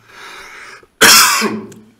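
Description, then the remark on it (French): A single loud, harsh cough bursts out after a short quiet breath, fading into a rasping tail. No words are spoken. “Ça m'en fait tousser.”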